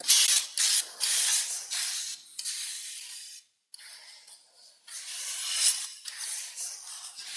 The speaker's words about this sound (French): C'est quoi Bah T'entends bien, c'est un boucher qui est en train d'astiquer son couteau, quoi.